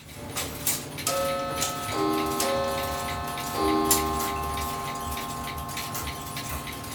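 A mechanical clock ticks steadily, with a few ringing chime-like tones sounding briefly partway through and fading out. No one speaks.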